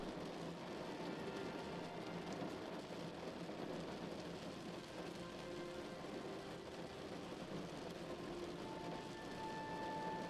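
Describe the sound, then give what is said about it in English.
Steady rain patters against a window in a dense, continuous hiss, with soft scattered drops and a faint low hum underneath. No one speaks. “Deep sleep rain at your window”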